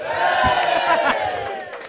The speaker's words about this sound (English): and so when he hears a big cheer like that, what team would he like to go to? Do you think?